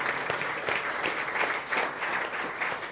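An audience applauds the Lord, a dense, steady wash of many hands clapping at once, sustained evenly for several seconds with no voices standing out.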